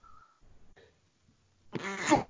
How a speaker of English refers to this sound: sorry, just sneezing.